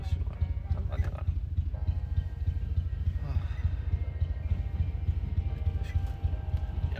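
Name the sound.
train passing by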